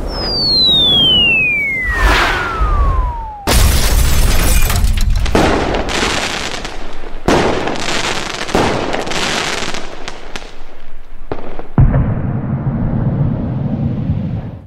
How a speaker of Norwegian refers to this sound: Oh, he went out with a bang, som det heter. Ja, da var det fyrverkeri, i hvert fall.